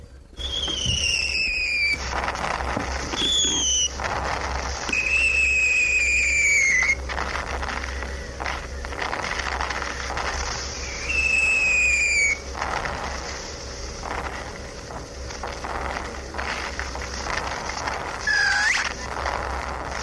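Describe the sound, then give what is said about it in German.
Light shrapnel shells whistle in with high, slightly falling tones, several in succession, each ending in a sharp burst, over a steady rumbling background with no talking. “leichte Schrapnells”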